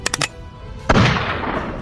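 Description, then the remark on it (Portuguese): Three quick metallic clicks, then a single loud, sharp pistol shot fired at a large creature about 10 metres away, ringing out and fading through a long echoing tail. No voices. “Eu vou dar um tiro de pistola.”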